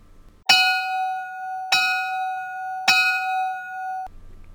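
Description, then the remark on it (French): A bell is struck three times at an even pace, each strike bright and ringing with a sustained metallic tone that carries between hits, loud, with no talking, marking the start of a segment. “Et, et c'est sur ça qu'on va lancer notre premier segment au son de la cloche.”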